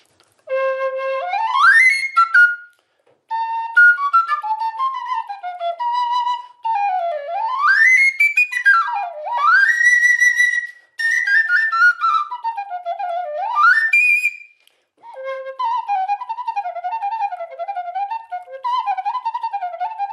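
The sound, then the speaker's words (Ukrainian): A homemade sopilka whistle flute, with a turnable head that covers one slit or another to change its timbre, plays loud swooping notes that glide up and down, in several phrases broken by short pauses. The tone is bright and reedy, with no voices. “На головці ведучий такий перекриває цю щілину, можете покручувати на другий бік і інша щілина. І вона міняє тембр, міняє звук.”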